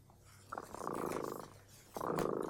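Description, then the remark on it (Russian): A cat named Dremota purrs in two rumbling, vibrating breaths, the second starting after a brief pause. No voices are heard. “Слышите? Кот Дремота запел свою песенку.”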